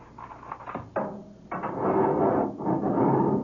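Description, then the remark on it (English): Edith Cavell's heavy prison cell door being opened on a guard's order: a few sharp metallic clanks, then a long, loud grinding scrape as it swings, with another clunk partway through. No voices. “Guard! Open the Edith Cavell cell door.”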